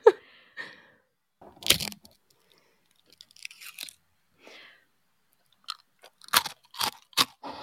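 Crunching and chewing of food, a series of crisp, irregular bites and munches with brief pauses between them, fairly quiet overall with a few sharper crackles near the end.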